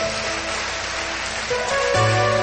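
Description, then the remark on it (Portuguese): A church audience claps steadily in a dense, crackling wash of applause to praise the Lord, while sustained musical tones play underneath and grow fuller and louder toward the end. “Se você recebe essa palavra dessa forma, agradeça a Deus e aplauda o Senhor.”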